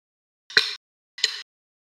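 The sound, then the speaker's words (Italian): Two sharp wooden knocks, drumsticks striking a wooden table, spaced about a beat apart, each with a short resonant ring, clear against silence. “Esatto, contro un tavolo di legno, due pacchetti di batteria.”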